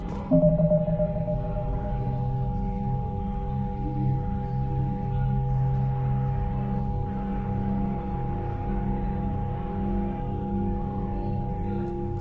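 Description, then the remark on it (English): A steady, droning starship engine hum in a video game with a soft synthesizer melody subtly blended into it, holding long sustained notes that move from F down to E and then D, at an even, moderate volume throughout. “You just heard a uh, Vigil playing in the podcast, and now listen, you can just hear it kind of subtly nestling its way into the hum of the engines.”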